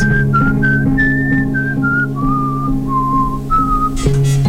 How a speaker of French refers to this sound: Les sifflets pour se relaxer. Une gigue. Enfin, quelques notes. Les sifflets en boucle. La tête s'arrête. Sensation de bien-être. Se laisser porter par ces sons.